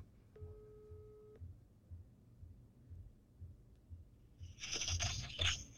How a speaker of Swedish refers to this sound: Um, ska vi ringa upp mamma? Ring mamma. Det här kanske blir jättekul. Nu ska vi få höra. Jag sätter henne på högtalare då. Då ringer vi